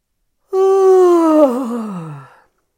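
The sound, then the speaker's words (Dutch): A single long, voiced yawn made as a voice exercise to free the throat, starting at a steady mid pitch, then wavering and sliding downward as it fades out over about two seconds. Fairly loud, with no talking. “Door bijvoorbeeld te gapen. Gapen en dan nog een beetje geluid erbij maken.”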